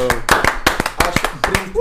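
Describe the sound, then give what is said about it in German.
A burst of audience applause welcoming a special guest, loud and fairly dense, with several sharp claps rising above the rest and voices mixed in underneath. “Bitte mal einen Applaus.”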